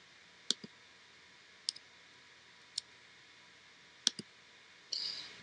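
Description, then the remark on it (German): A computer mouse clicks several times at irregular intervals while selecting the Path Blur filter, some clicks coming in quick pairs, crisp against a quiet background, ending with a brief soft hiss. “klicke also entsprechend rein und wir sehen, hier taucht schon der erste Pfad auf, der ist automatisch drinnen, den lösche ich mal raus.”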